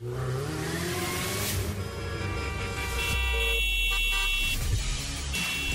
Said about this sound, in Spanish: claxon en tu auto solo para una emergencia, no para faltar al respeto a los demás.